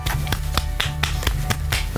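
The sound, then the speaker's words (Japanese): One person claps alone, steadily at a quick, even pace, roughly eight sharp claps, with a low droning background underneath. “一人で拍手してもちょっと寂しいなーって感じがしますけども”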